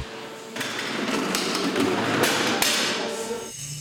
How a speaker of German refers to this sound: Die Zündereinstellung prüfen, die Ladung vorbereiten, die Granaten ansetzen. Das eingespielte Team arbeitet Hand in Hand. Bei einer Reichweite von fast 40 Kilometern kann diese Kanone bis zu fünf Schuss in 25 Sekunden abfeuern.